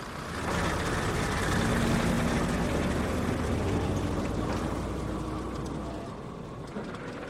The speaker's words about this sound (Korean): 굴착기들은 입 따라서 산을 깎아내고 있었고 깎아낸 흙더미 실은 대형 트럭들이 사제사찰 쪽으로 연락부절 오르내리고 있었다.